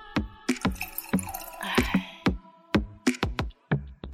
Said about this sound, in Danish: Nu bliver der lige hældt lidt vin op i glasene, fordi sådan er det.